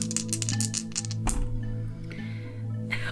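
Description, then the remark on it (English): Three dice clatter across a hard surface in a quick burst of small clicks, then a sharper knock and a few scattered taps as they settle, over a low steady hum. “So am I going in with three dice?”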